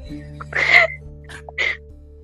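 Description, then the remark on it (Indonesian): Three short, raspy coughs after laughing come close together, the first longest and loudest, the next two quicker and softer, over a low steady background hum. “Duh, gue kalau ketawa pasti batuk nih”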